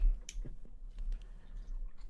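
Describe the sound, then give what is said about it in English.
The plastic cap of a bottle of non-carbonated milk drink that smells like Cinnamon Toast Crunch twists open, giving a few small, sharp clicks and a faint crackle, with no one talking. “I'm opening it like it's going to explode. It's not carbonated.”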